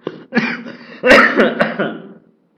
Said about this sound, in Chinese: 你看，你搞得我都咳嗽了哈